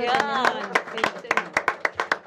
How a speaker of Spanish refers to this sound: Un aplauso.